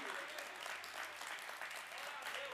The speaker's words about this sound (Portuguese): Uh, aplauda ele. Aleluia!